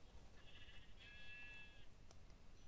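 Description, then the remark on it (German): A single sheep bleats once, a wavering nasal baa lasting over a second, fairly soft against a low background hiss, with no talking. “So, Schafe.”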